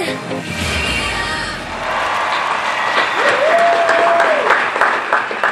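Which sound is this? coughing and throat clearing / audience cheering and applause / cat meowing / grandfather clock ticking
audience cheering and applause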